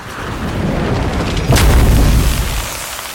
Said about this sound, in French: Dans un atterrissage absolument non contrôlé, l'engin s'écrase lourdement dans un énorme monticule de flocons de neige à quelques mètres.